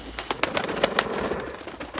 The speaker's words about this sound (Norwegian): Hvorfor er det så mye duer her inne? Nei, Det er de eh, jævla trusselbrevduene. Jeg har fått så mange, jeg har ikke klart å få alle ut engang.